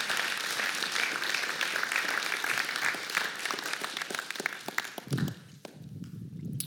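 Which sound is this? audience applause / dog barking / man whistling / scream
audience applause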